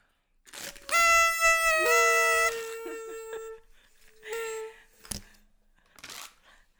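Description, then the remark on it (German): A toy horn blares a loud, buzzy, reedy tone for about a second and a half, its pitch dropping partway through, then gives a shorter, softer honk a moment later. “Einfach grandios, wie das funktioniert mit diesen Tröten.”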